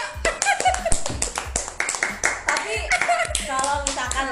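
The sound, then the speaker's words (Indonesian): Hands clap rapidly and irregularly for several seconds, a dense run of sharp, loud smacks, with voices calling out and cheering over the clapping. “kita hari ini eh, tepuk tangan dulu ya eh, teman-teman ya.”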